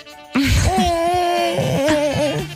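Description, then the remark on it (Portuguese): A voice imitates a creaking door: a long, wavering, strained vocal groan that rises and bends in pitch, loud, lasting a couple of seconds with no words. “E agora faz uma porta a ranger.”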